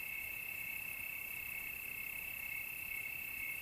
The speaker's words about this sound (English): so this is an extended episode with the sound of crickets in the background. It'll go on for a while after the end of the story to help you fall deeply asleep.